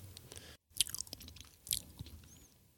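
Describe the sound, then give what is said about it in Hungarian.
Wet chewing of a piece of beetroot, with several crisp crunchy bites and soft mouth sounds at irregular intervals, heard on its own without any talking. “most egy céklát vesz óvatosan a szájába.”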